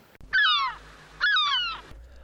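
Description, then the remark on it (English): Birds chirping in a forest on a sunny day: two loud cries, each lasting over half a second with a slightly falling, raspy tone, separated by a brief pause, with no talking. “listening to the birds chirp in the forest behind me”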